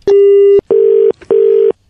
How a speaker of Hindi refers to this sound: hello network बड़ा आजकल cut जाता है फोन ना भाई साहब